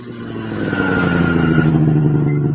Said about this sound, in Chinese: 一阵轰隆隆的声音引起了船上所有人的注意力。只见一辆十分炫酷的红色雪地车正在向他们这边快速驶来，最终停在了岸边。